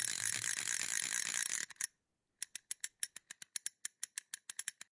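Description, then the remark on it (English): A spinning prize wheel clatters in a fast, dense rush of clicks, falls briefly silent, then ticks on in sharp, evenly spaced clicks that gradually slow as it winds down. “I will spin the wheel.”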